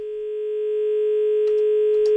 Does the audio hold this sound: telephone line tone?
yes